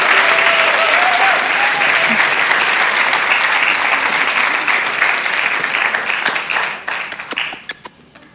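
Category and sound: crowd, audience applauding loudly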